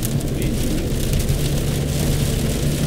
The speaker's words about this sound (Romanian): Plouă. Nu are înregistrarea purici. Plouă.